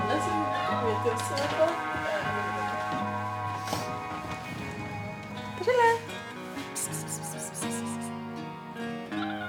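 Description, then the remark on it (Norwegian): A cat meows a couple of times, short rising and falling cries spaced a few seconds apart, as it walks along a house wall in bright Easter sunshine at Leirsund, searching for something and waving its tail, over a dense, steady tonal background that sounds like music. “Det går en katt og mjauer i den skarpe påskesola på Leirsund.”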